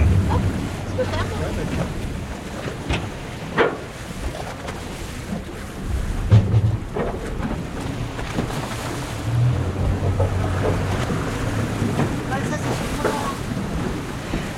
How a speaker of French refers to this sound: Alors là, on est euh, dans le port de l'île de Saint, on est à quai, à bord du bateau. Alors l'île de Saint, c'est une île qui se trouve euh, à la pointe de la Bretagne